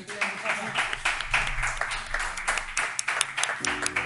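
A crowd applauds steadily at the close of a programme, a dense wash of many hands clapping with sharp individual claps popping through, before a sustained musical tone begins to rise under it at the very end.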